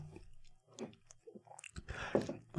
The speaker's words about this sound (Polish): Y, a popijam dzisiaj mm, zupą pomidorową, którą moja żona zrobiła o Jezu, to jest, to jest taki gęścioch przepyszny